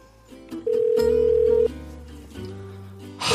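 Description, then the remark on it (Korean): A phone ringback tone as a call to a girlfriend goes unanswered after 1 a.m.: a steady mid-pitched electronic beep holding for about a second over layered low tones, with no voices. “그런데 새벽 1시가 넘어서도 여자친구는 전화를 받지 않았습니다.”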